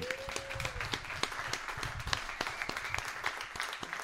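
A burst of applause with many hands clapping in dense, irregular bursts, steady throughout, with a brief tone sounding near the start.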